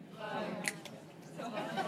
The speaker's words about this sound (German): So, wir machen es ein bisschen schwieriger und ersetzen die 1 durch ein Schnipsen.